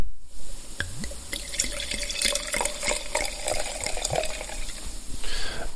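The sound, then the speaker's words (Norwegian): Faustino Reserva wine is poured into a glass, with a steady splashing trickle, small glugs and drips for several seconds, the tone rising slightly as the glass fills. No one speaks. “Så nå skal jeg da uh, helle litt oppi her, da. Skal du høre.”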